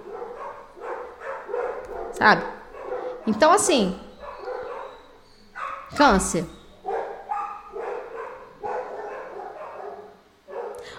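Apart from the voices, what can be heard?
dogs barking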